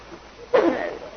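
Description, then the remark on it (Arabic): A single sudden sneeze bursts out, a sharp explosive puff that trails off quickly into quiet. “يرحمك الله”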